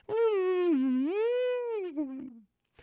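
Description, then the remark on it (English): A voice imitates a wavering, eerie theremin-style wail, the traditional 1950s horror film sound, a single sustained tone that swoops down and back up before sliding lower and trailing off, loud. “One to play with pitch, the other one to play with volume, and with that, you come with what is the traditional 1950s horror sounds of the”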